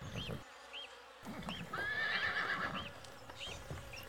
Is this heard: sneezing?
no